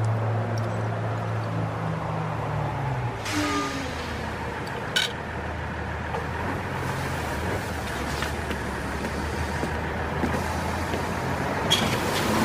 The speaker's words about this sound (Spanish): Un colectivo ingresa al estacionamiento.